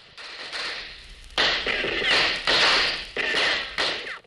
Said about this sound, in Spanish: Viene mi novia. Oye los cohetes.